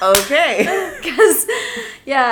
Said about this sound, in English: if you wonder what that noise was, it was me slapping my arms uh, or slapping my legs